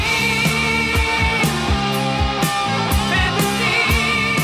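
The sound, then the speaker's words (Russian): Loud full-band rock music from a 1980 album plays, with thick sustained guitar chords over a steady, driving drum beat striking about twice a second. No voices are heard. “Это альбом 80-го года «…».”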